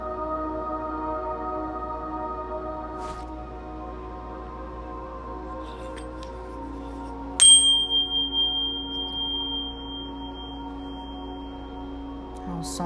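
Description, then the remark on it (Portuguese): A single bell is struck once midway, its bright tone ringing out and slowly fading over several seconds above a steady, low ambient drone. No one speaks. “do sino, deixamos os nossos anjos e arcanjo Miguel e sua falange de anjos protetores trabalharem.”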